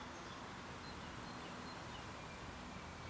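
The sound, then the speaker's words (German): Wind blowing through a field of oats or triticale at the edge of the village of Prediko in Brandenburg, Germany: a soft, steady rustling hiss that holds evenly throughout, quiet and without any voices. “So klingt es, wenn am Ortsrand von Prediko der Wind weht, durch Hafer oder Tritikale, eine Kreuzung aus Winterweizen und Roggen.”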